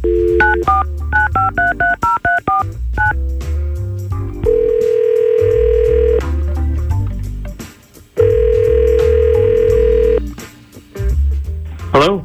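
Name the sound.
outgoing phone call ringing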